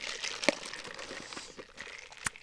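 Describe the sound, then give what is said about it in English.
A sip from a drink, heard alone without talk: soft slurping mixed with crinkly rustling, marked by a sharp click near the start and another near the end. “Let me take a sip.”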